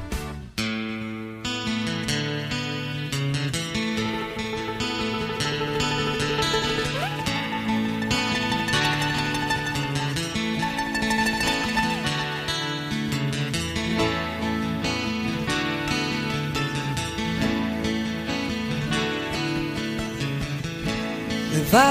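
A live acoustic rock song plays at a steady, full volume, with strummed guitars and a sung lead vocal carrying the melody over a warm, continuous band backing.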